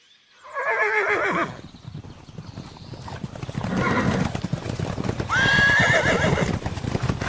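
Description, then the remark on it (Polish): Horses gallop with a steady, drumming clatter of hooves, broken by two loud, shrill neighs, one near the start and another toward the end. No one speaks. “Na koń, rycerze!”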